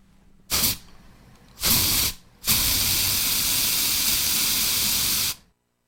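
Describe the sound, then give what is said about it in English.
Three bursts of hissing spray from an aerosol can: two short puffs followed by a long, steady three-second spray, loud, with no voices. “It's an aerosol can. Spraying an aerosol can.”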